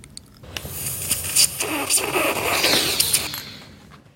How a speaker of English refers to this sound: So that last snorting sound you hear is the Rami Malek character um, snorting up a line of morphine, I believe it is.